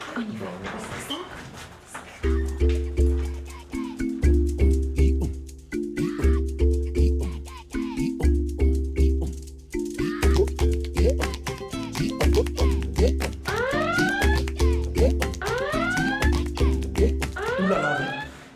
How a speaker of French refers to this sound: Mais c'est l'alarme incendie, ça.